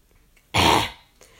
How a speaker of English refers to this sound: I don't want to cough throughout this.